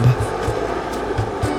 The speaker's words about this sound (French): Dans mon dos des portières et le rugissement du moteur.